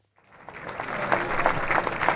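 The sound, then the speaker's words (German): An audience in a hall in Zürich bursts into applause after a brief silence, the dense clapping swelling quickly and holding steady and loud, a standing ovation as Hungarian Prime Minister Viktor Orban arrives at a Weltwoche event. “Bereits bei Orbans Ankunft im Saal erhob sich das Publikum ein erstes Mal für eine Standing Ovation.”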